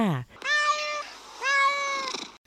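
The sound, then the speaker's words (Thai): A cat meows twice in quick succession, clear, each call drawn out with a slight rise and fall. A brief voice trails off just before the first meow. “คำตอบก็คือแมวค่ะ”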